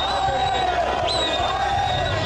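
Zimbabwean lawmakers cheer and applaud loudly and without pause after the President's resignation is read out, a dense roar of voices and clapping with shrill, sustained whistle-like tones rising above the din.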